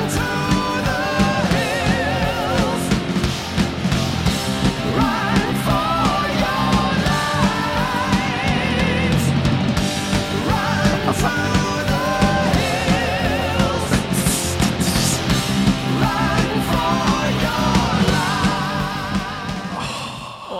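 A loud, dense rock song plays throughout: distorted guitars and pounding drums fill the mix while a powerful sung vocal line soars over the top, like a big heavy metal chorus.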